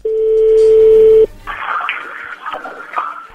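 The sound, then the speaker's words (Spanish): A telephone number being dialed: a steady, loud dial tone holds for just over a second, then gives way to a few brief, irregular tones and clicks over a hissy line. “ahí se está marcando.”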